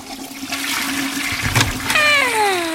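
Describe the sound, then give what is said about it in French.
A toilet flushes with a loud, rushing gush of water, followed by a rising, whistling hiss as the tank refills. No one speaks. “Allez, un dernier tour aux toilettes.”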